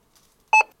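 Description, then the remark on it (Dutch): A short, bright electronic beep from a phone barcode scanner app as it scans the barcode on the bottom of a package of rice, a single confirmation tone lasting about a tenth of a second, clear with a faint blip just before it. “Ik heb toevallig aan de onderkant van een pakje rijst gescand nu op dit moment.”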